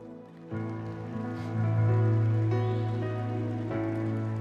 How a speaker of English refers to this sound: No, no, no. If you want to clap, clap, others don't.